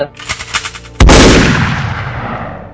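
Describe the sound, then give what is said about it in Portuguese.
A loud gunshot cracks out after a second of quieter rhythmic clatter, its blast ringing and decaying over the next couple of seconds. “É, o Paulo morreu, pelo visto, né?”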